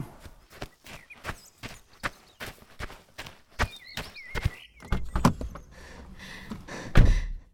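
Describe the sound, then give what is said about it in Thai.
Quick, evenly spaced footfalls of a person running to meet someone patter along at a running pace, then turn more scuffing and uneven before ending in a heavier thump. “หนูเหนื่อยไหมคะวิ่งมาทำไมเดี๋ยวก็ล้ม”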